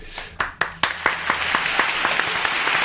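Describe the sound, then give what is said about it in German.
A few scattered claps at first, then quickly swelling into steady, dense applause from a group that keeps going at an even level. The applause comes at the end of a show, for its participants. “Applaus für Jake.”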